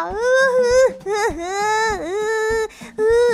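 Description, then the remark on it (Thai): A voice acting a cat performs exaggerated fake crying, a series of drawn-out, wavering wails with rising and falling pitch, loud and sobbing, with short breaks between cries. “เจ้าแมวพูดไปก็แกล้งร้องไห้น้ำตาหนองหน้าไปท่าทางน่าสงสารไม่น้อย”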